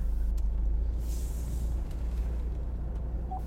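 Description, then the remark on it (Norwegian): Steady low engine rumble and road noise from inside a moving car driving on winding roads past a prayer house, the sea and a motorcycle club, continuous throughout, with a brief hiss of air and a few faint clicks; no one speaks. “En uke etter at vi chatta, taster jeg inn tettstedet på Google Maps og setter meg i bilen. Mens jeg kjører på svingete veier forbi bedehus, hav og en motorsykkelklubb”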